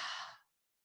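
A single long, breathy exhale through the mouth after a deep breath drawn in through the nose into the belly, fairly loud, airy hiss fading out after about half a second into silence. No talking.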